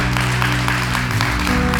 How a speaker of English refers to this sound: Come on, somebody, that's good. We can clap for God's word.